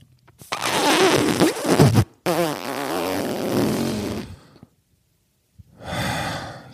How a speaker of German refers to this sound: Alexa, Pups-Generator starten.